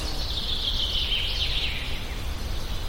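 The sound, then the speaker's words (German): A dense, continuous wash of high birdsong chirping from many birds at once under spruces in a forest in Finland, fairly steady throughout, over a low background rumble. No one speaks. “Die Kamera fährt zu Vogelgezwitscher unter Fichten entlang, ab und zu gerät eine Birke ins Sichtfeld, am Boden wachsen Preiselbeeren, Buchenfarn und goldenes Frauenhaarmoos.”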